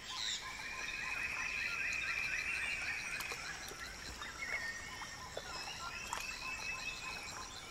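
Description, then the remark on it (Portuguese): A dense chorus of many birds calls and chirps from many directions in a flooded forest with huge centuries-old trees and wild orchids, with steady high-pitched trills and insect-like buzzing layered throughout. No one speaks. “Estamos na floresta encantada uma região alagada, com enormes árvores centenárias, orquídeas selvagens e muitos pássaros.”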